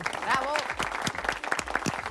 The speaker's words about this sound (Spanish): Le brindamos un aplauso a Saúl Crabotto y a, Belmonte, Me parece estupendo, Ahí está, ese aplauso para ellos. Bravo.